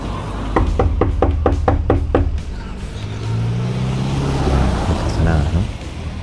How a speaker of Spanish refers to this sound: Uy, timbre no funciona. ¿Y ahora qué hacemos? Golpeamos la puerta, así, de frente va.